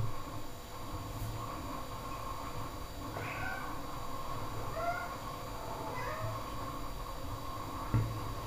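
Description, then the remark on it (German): A tomcat meows several times in a row, drawn-out, wavering cries spread across a few seconds over a steady low background hum, with no one talking. “Mein Kater hat welche am Rad. Ich vermute mal, dass er einfach mal auf die Vögel reagiert da draußen.”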